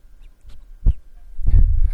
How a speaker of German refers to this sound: Das ist übrigens unsere Katze, die hat ja gerade geschnüffelt.